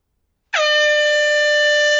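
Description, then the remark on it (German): A loud, sustained air horn blast signals the two-minute warning at an American football game, starting abruptly after a brief silence and holding steady at full volume, bright and buzzy with rich overtones. “Wie du hörst, Two-Minute-Warning.”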